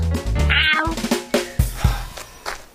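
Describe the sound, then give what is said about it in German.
A tomcat meows loudly in a drawn-out, wavering yowl, followed by a few shorter, sharper cries. No one speaks. “Was ist denn los mit dir, Kater? Zitterst du?”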